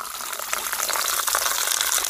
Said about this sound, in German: da gehen die Brunnenfrauen hin und schenken einem das richtige Heilwasser ein